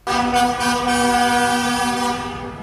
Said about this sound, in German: und äh, da hast du gehört, wie ein Traktor hupt. Ne? Das wollen wir uns jetzt auch mal ganz kurz anhören.